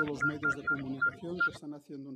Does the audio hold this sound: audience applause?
no